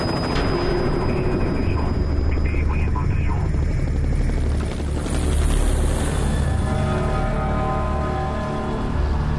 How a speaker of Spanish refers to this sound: ¿Qué pasa? Es un helicóptero militar, Mira allí al fondo.